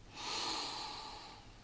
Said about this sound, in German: nicht machen, nur spüren, einatmen durch die Nase.